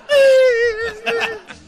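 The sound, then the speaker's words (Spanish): A voice imitates a crying child with one sustained, wavering whimper that slowly falls in pitch, followed by a couple of breathy sobbing catches at the end. “y el niño está llorando.”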